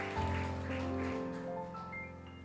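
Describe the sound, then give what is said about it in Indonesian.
An audience at a Christian service claps for God, steadily, with a dense, even patter of many hands, while sustained keyboard chords hold underneath throughout. “Berikan tepuk tanganmu yang paling meriah untuk Tuhan”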